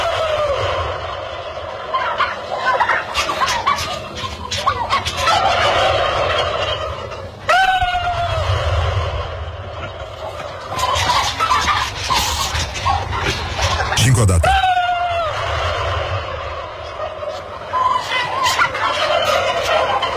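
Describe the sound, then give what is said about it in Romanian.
A large flock of turkeys gobbles continuously in front of a young man, many overlapping calls forming a loud, dense chorus, with sharper individual gobbles bursting out every few seconds. “Dar încheiem niște curcani pe care, care au început să circule pe net Ne-au trimis foarte mulți ascultători Această înregistrare de excepție În care un tânăr uh, se află în fața unei mulțimi de curcani”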